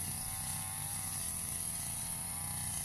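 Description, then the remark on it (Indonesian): A lawn mower engine drones steadily with a low buzzing hum, constant in loudness throughout, with no voices, as someone cuts grass with it. “lo dengar itu ada orang lagi motong rumput menggunakan mesin potong rumput”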